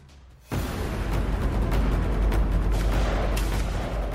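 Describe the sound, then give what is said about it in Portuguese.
After a brief quiet moment, dense gunfire erupts with heavy booming grenade explosions as marines kill a sentry and throw grenades into boats, sinking three; a loud, continuous barrage of rapid cracks and rumbling detonations with no talking. “Os fuzileiros eliminam uma sentinela e lançam granadas para o interior das embarcações. Três delas afundam-se com a explosão.”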